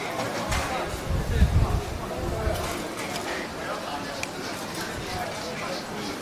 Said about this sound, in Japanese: このガヤガヤした感じも良ければお楽しみいただければなと思います。